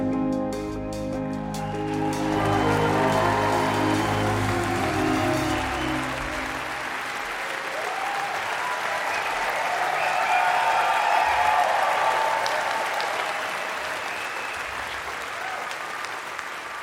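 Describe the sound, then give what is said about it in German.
A concert audience in the HR-Sendesaal bursts into sustained, dense applause for the HR Big Band as the final music chords of the evening's encore die away in the first seconds, clapping steadily and loudly with a few cheers throughout. “Sie hinterlassen ein begeistertes Publikum im HR-Sendesaal.”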